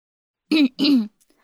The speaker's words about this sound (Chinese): 斟酌了一下用词，清了清嗓子，正色道：